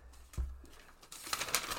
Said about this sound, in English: Hear that sound? Hear those pages rustling? It's time to break out the paper notes, people.